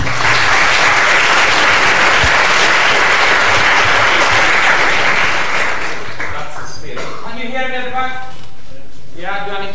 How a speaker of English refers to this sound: It's a good thing you applauded, you know, before I even gave the speech, in case you don't want to applaud at the end of it.